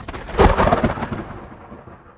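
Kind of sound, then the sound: nature, thunderclap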